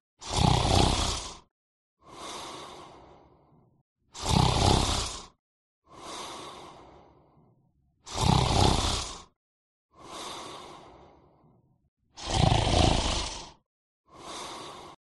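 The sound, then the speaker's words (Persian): Deep, heavy breathing in a slow repeating cycle: loud rasping inhales alternate with softer, fading exhales, like a monstrous snore, with no talking; a man sleeping in a room of a house at night, snoring. “صدای نفس کشیدن یه حیولا یعنی شما این صدا رو نمیشنوین؟”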